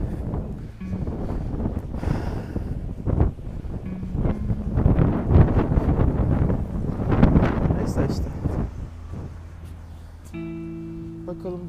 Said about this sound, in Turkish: Rüzgar da her taraftan geliyor. Hiçbir taraf yönü yok ki.